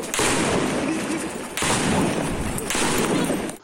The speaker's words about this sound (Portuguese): O outro se dirigiu para o batalhão da Polícia Militar. Todos estavam fortemente armados e fizeram vários disparos.